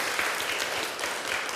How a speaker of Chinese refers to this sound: 我们再次用热烈的掌声，把荣耀归给主。